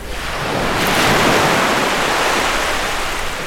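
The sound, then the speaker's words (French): Steady rush of sea waves washing onto a shore at falling tide, broad and continuous, with a light breeze adding soft hiss over the surf; no voices. “Euh, est-ce qu'il y a du vent aujourd'hui Vous avez regardé ah Oui, un petit peu.”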